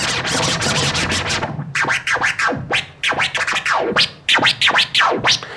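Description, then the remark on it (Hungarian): A DJ does a basic scratch on a vinyl turntable, cutting up a track: after a dense burst of music, a rapid series of back-and-forth scratches sweeps up and down in pitch, loud and rhythmic, with no voices. “Tehát, ugye régebben fogtad a hangot, Ugye ez a Scratch.”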